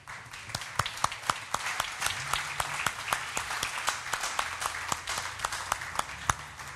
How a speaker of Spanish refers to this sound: Bueno, pues pues vamos a darnos un aplauso.